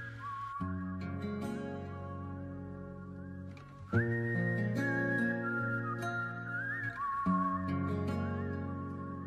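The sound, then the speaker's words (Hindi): A song opens with a clear, steady whistled melody riding over full instrumental backing, the tune carried in long sustained notes that shift pitch a few times. No one speaks. “और दोस्तों अगर आपने किसी वजह से ये गाना नहीं सुना था जब ब्रॉडकास्ट हुआ था तो क्या ख्याल है एक बार फिर से सुन लें”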